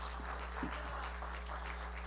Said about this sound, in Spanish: Gracias por ese aplauso tan sin sabor, pero bueno. porque es para Dios, ¿verdad?